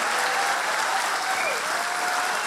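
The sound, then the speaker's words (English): Sustained audience applause for the guest Virginia Ironside fills the whole stretch, a dense, steady wash of many hands clapping with no pauses or voices breaking through. “Will you please give a massive round of applause to my guest, Virginia Ironside, ladies and gentlemen?”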